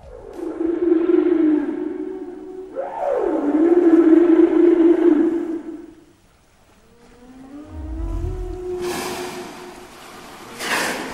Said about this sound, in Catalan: Efectivament, són balenes que durant l'època d'aparellament els mascles emeten sons per atraure a les femelles